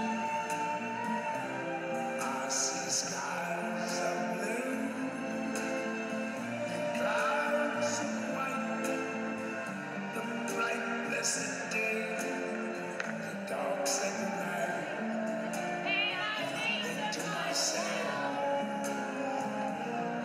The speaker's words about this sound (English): All of these, all of these songs that we're hearing, these are very, very special to New York City. Plus, they're in countless movies.